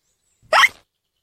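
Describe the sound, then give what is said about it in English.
A single sharp hiccup from young George in Peppa Pig, quick, standing alone in silence with no talking around it, after a failed cure for his hiccups. “Peppa's cure for hiccups doesn't seem to have worked.”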